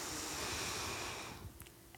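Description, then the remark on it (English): A long, deep, steady breath drawn in through the nose, airy, lasting over a second before trailing off into quiet with a couple of faint clicks. “so you want to take a deep breath in through your nose”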